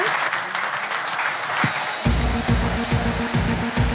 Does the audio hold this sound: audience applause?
yes